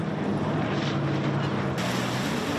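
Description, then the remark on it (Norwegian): A jet ski with a large engine drones steadily and loudly, a continuous motor hum mixed with rushing water and wind noise, with no pauses over the few seconds. “Kanskje ikke alltid like lett å overholde for enkelte av førerne som sitter på en diger motor.”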